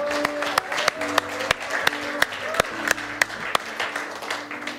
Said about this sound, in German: Lasst uns mal Gott einen richtigen Applaus geben.